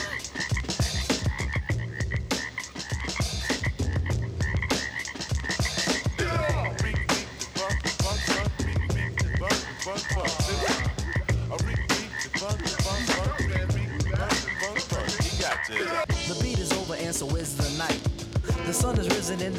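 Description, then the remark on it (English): A dense chorus of frogs croaking continuously, many overlapping calls pulsing and rattling at once, loud with a busy, rhythmic texture throughout. “Still hear the frogs dancing in the street.”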